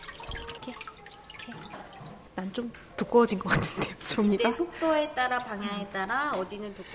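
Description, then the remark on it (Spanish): Water sloshes and drips in a vat as a wooden mould with a bamboo screen is moved up and down and side to side in thick, milky hanji paper pulp, with irregular splashes at first, then continues softly beneath a person talking. “Hay que mover la caja de arriba abajo y de izquierda a derecha para que las fibras se depositen uniformemente.”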